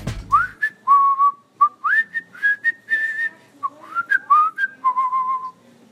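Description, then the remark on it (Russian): A person whistles a song melody solo, with clear sustained pure tones gliding between pitches in a steady phrased rhythm, moderately loud, with no talking. “Свистеть буду я.”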